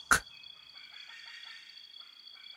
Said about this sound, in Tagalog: Maya-maya, narinig namin ang huni ng wakwak.